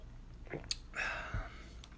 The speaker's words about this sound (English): Um, well, I think I need to sip real quick.